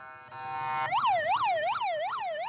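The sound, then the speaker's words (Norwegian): The siren of an ambulance shuttling in Gaza starts with a steady tone, then switches to a rapid rising-and-falling wail that repeats about four times, loud, with no talking. “Lyden av sykebiler som går i skytteltrafikk på Gaza kan høres døgnet rundt.”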